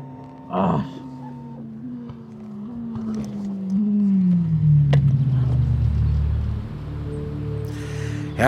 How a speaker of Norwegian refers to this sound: Bortsett fra passerende biler råder stillheten, inntil det lander en fugl like bortenfor.